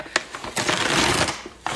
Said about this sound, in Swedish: Jag sticker in handen. Det är en påse, en papperspåse. Jag sticker in handen och det känns lite ginsigt. Det är för det är hål i påsen nämligen.